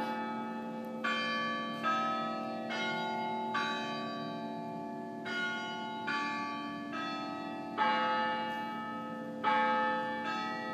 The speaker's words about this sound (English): now we're going to get some extra bells mm-hmm. because it's yeah, the hour